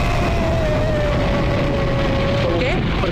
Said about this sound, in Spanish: para orbitar fuera de la Tierra en el Friendship número 7, porque los seis previos explotaron.